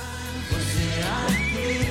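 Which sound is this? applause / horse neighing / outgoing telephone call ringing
horse neighing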